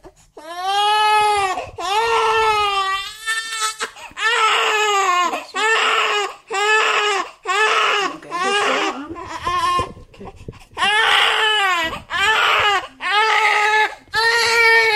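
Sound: infant crying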